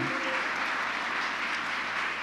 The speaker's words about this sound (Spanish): Vamos, dale un fuerte aplauso a Jesús.